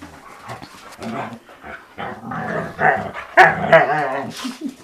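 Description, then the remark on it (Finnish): Dogs bark excitedly as they wait, a rapid, irregular run of sharp barks mixed with growly and whiny yelps, with no talking. “Koirat odottaa.”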